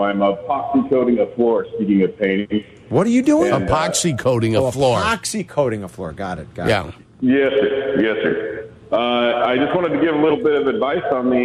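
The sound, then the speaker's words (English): A caller from Idaho on the ESPN 1000 radio show speaks over a phone line with a noticeable echo, each phrase trailing a hollow repeat, alternating with a clearer, fuller voice in steady back-and-forth conversation. “Hey guys, first I'll apologize for the echo.”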